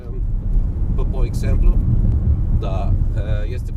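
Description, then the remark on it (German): A car engine rumbles low and steady amid gusting wind outdoors as the car parks on a hilltop overlooking the Danube and a port, with brief stretches of muffled voices talking over the drone. “Zwei Stunden später parkt … seinen Wagen auf einer Anhöhe mit Blick auf die Donau”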